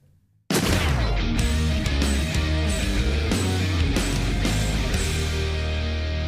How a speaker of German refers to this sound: Hoppala, denkt ihr euch, was macht denn der Jingle da mitten in der Folge?